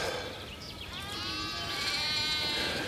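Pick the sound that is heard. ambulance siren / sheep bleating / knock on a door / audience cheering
sheep bleating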